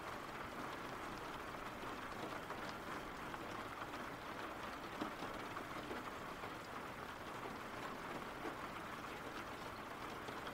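Steady rain pours down in a dense, continuous hiss, with fine patter spread evenly throughout and no pauses or voices.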